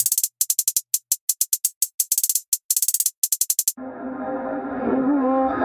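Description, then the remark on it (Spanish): A solo hi-hat plays a quick, steady pattern of crisp, bright ticks with brief gaps between groups, then stops as a warbling, mid-pitched tonal sound takes over. “Hi-hat.”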